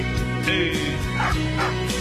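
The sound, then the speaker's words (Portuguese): Dogs bark at the neighbour's in a few sharp, spaced-out bursts, fairly loud, over a steady musical background with no one speaking. “Corta os cachorros aí na vizinha”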